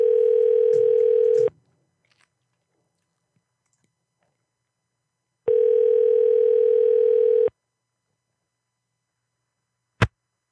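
A telephone ringback tone of an outgoing call: two long, steady mid-pitched buzzing tones separated by a few seconds of silence, followed by a sharp click as a voicemail picks up.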